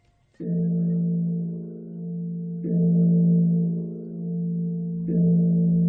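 The large bell of Dazhong Temple (Big Bell Temple, originally Juesheng Temple) in Haidian District, Beijing, is struck three times at steady intervals, each deep, loud strike blooming into a long humming tone that carries straight into the next.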